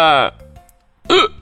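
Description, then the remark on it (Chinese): Two short, loud burps voiced by a person for a cartoon seagull that has just eaten stolen potato chips, the first strained and the second rising and falling, separated by a brief quiet pause. “海鸥大叔打着饱嗝，伸出尖尖的鸟嘴，连包装袋都抢走了。”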